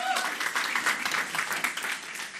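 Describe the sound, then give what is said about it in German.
A crowd applauds steadily, a dense wash of many hands clapping at once that holds at an even level throughout, fairly loud. “Also einen Applaus”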